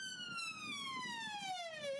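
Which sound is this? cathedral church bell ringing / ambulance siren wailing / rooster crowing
ambulance siren wailing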